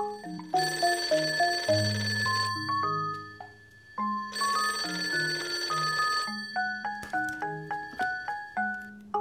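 A telephone bell rings in a little white mouse's office in a children's story, in two long, rattling bursts of about two seconds each, separated by a short pause, over a bouncy plucked melody that keeps playing underneath. No one speaks.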